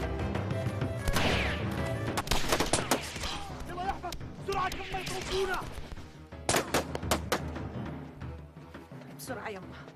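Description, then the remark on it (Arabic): Repeated sharp gunshots crack out in a village in irregular bursts, some loud, others overlapping, while agitated voices shout and talk underneath throughout. “ما بيجي الصبح الا والانجليز مطوقين البلد ما دام صار فيها ضرب رصاص”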